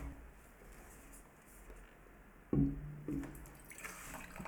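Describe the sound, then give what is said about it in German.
Water is poured into a glass during a beer tasting, starting with a sudden splash and bump, then a brief gurgle and a brighter, steadier trickle as the glass fills, otherwise quiet. “Schluck Wasser zum Neutralisieren ist, glaube ich, nicht ganz verkehrt.”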